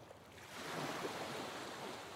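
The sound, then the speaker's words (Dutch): Ocean waves wash steadily onto a beach, a soft continuous rushing surf that swells slightly in the middle, heard alone without any voices. “En zoals je adem in en uit gaat, zo stroomt het water ook naar het strand toe en van het strand af.”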